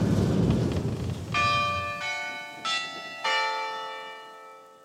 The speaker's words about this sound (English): Not far from the giant trout is the town clock. It plays the Westminster chimes, the same sequence as London's Big Ben. You hear them all over Gore.